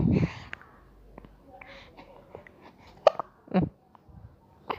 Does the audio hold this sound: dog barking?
no